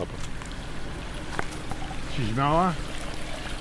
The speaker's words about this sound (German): wir fahren noch einige Kilometer den Sandweg entlang, bis wir an einer Quelle halten, angelegt aus massivem Stein. 1831 ist auf einer Marmorfläche zu lesen. Aus vier Rohren rinnt Wasser heraus.